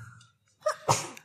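A single sharp sneeze: a quick inhaled build-up followed by a loud, explosive burst that fades quickly.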